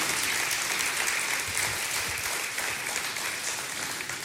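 An audience claps steadily, a dense, even wash of many hands at a fairly constant level throughout, with no voices standing out.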